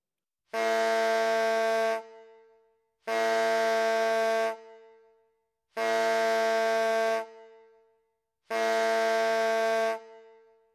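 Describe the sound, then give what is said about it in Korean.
A pipe is blown four times in a steady rhythm by a pig gelder arriving at an inn, each note a loud, sustained, reedy blast of about a second and a half with short pauses between, with no voices. “이러고 있을 때 돼지를 거세하는 일꾼이 객주집에 도착해서 피리를 네댓 번 불었다.”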